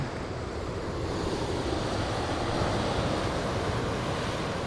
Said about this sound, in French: Ah, ici, nous avons une jolie vue sur cette, cette rivière qui court à travers la plaine des lacs. Et vous voyez, bon, ces chutes qui sont pas forcément très très hautes, mais qui sont absolument magnifiques. donc les chutes de la Madeleine